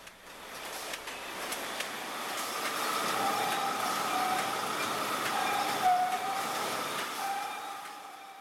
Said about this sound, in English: We were listening to production sounds that were uh, captured at the bakery last week. You know, and those production lines went silent as the company stopped baking.